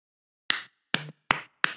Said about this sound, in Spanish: eso que están escuchando son mis aplausos.